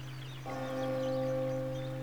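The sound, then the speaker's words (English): A single church bell strikes once and rings on, its tones sustaining steadily over a low background hum, at first light in a city on the River Thames. “The peal of a single church bell.”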